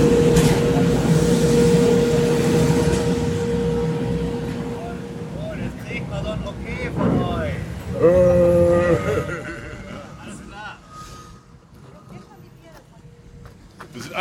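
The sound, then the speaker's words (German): A garbage truck's heavy engine rumbles with a steady mechanical whine, then a burst of hydraulic groaning and squealing tones rises briefly before the noise gradually fades down. “Das ist jetzt einfach nur ein Müllauto.”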